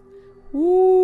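A voice imitates an owl's hoot in a children's bedtime story: a low, steady "woo" that holds one pitch, then swells louder and slightly higher halfway through and sustains to the end.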